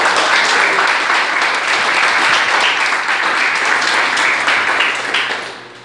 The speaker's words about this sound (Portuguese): E as palmas que adoram o Senhor Jesus.